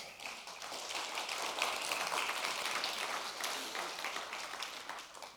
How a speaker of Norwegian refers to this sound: Men vi er altså i dag 314 unike medarbeidere frivillige medarbeidere i Grimstad misjonskirke. Det syns jeg er verdt en applaus.